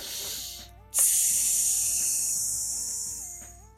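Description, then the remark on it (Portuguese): A voice makes a long, steady snake-like hiss as a breathing mantra, the serpent mantra, lasting nearly three seconds, loud, then slowly fading, with faint melodic background music underneath. “E fecha teus olhos e fica se projetando para frente, ou fica fazendo mantras, como o mantra da serpente que tu fica respirando e fazendo.”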